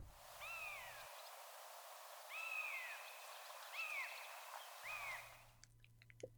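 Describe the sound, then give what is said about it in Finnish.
A Siberian jay calls from a distance, giving four drawn-out, slightly rising whistled cries at uneven intervals over a soft, steady outdoor hiss. “Kuukkelin huikkaus kaukaa.”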